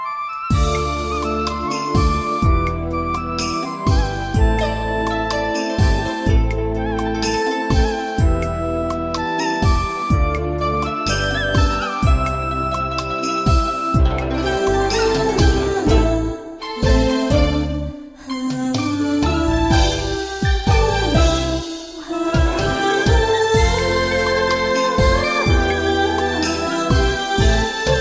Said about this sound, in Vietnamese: Chúng ta cùng lắng nghe ca khúc